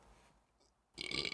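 After a moment of near silence, one sudden, forceful sneeze bursts out, a sharp hissing blast that cuts off at the end.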